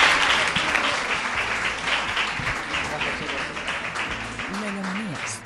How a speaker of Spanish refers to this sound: Un fuerte aplauso, chicos. Muchas gracias. Gracias.